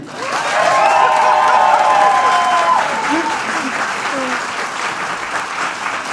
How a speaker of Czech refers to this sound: By mě zajímalo, jak je tam rozložení sil, kdo tleskal pro koho, jakoby. Jestli je Karel víc než, než, než Vašek Havel.